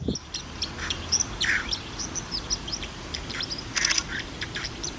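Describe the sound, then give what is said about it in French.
A white-throated dipper calls in quick, sharp, high-pitched chirps, repeated irregularly, over a steady low rushing background. “C'est un oiseau qui ressemble à une petite boule, qui est très sombre et qui a une bavette blanche caractéristique.”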